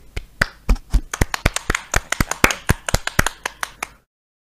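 Brisk hand clapping, a quick run of sharp, close claps with a slightly uneven rhythm, like a small group applauding, lasting about four seconds before stopping abruptly. No one speaks.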